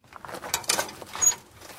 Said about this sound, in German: Die quietschende Tür gehört zu einem kleinen Friedhof, den ich kenne, seit ich denken kann. 30 Quadratmeter, vielleicht 40, eingehegt von einer Backsteinmauer.